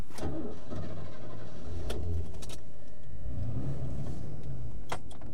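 A pet sitter's car driving along between clients' homes, a steady low engine and road rumble running throughout, broken by a few sharp clicks and knocks. No one speaks.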